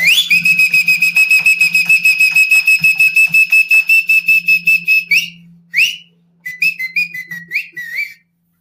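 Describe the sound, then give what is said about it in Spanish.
Loud, piercing whistling: a long run of rapid trilled blasts for about five seconds, then a brief pause and a few shorter warbling whistles, with a faint low hum underneath. “vamos a conversar eh, con los chiflidos y todo.”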